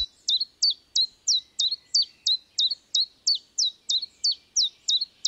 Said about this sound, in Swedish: Så att eh, i, i södra Sverige så är gransångaren en art som man hör mer och mer. Och vad hör man då? Då hör man eh, ett läte som eh, man kan säga att den sjunger så här sylt, salt, silt, sylt, salt, sill.